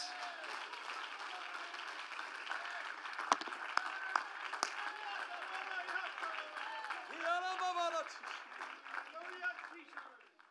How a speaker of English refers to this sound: Somebody clap your hands and give the Lord a praise.